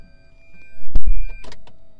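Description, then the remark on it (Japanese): A car door is opened while the car is reversing, with a couple of solid clunks from the latch, followed by brief mechanical rustling and whirring over a low engine hum. No one speaks. “今バックする時車のドア開けるんですけどドア開けたまま「ムーリューリューで」とか言ったら危ないと思って今一回黙っちゃったんですけど”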